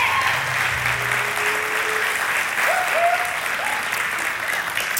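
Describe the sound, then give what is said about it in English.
A large crowd at a City Church Downtown service applauds steadily and loudly for several seconds, a dense wash of clapping with a few whoops and whistles rising above it, and no one speaking. “So I'm not gonna lie, you guys are much rowdier than the 8:30 was this morning.”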